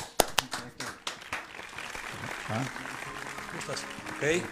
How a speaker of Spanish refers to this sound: Ahí están los aplausos para nuestro declamador.